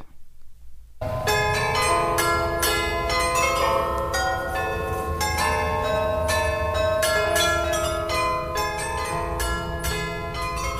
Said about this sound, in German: Hörst du? Das ist das Glockenspiel